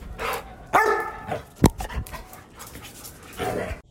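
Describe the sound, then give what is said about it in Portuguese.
A dog named Frank pants in breathy, rhythmic bursts and lets out a sharp, loud bark partway through, followed by more huffing breaths. No one speaks. “Uma coisa que só Frank sabe fazer.”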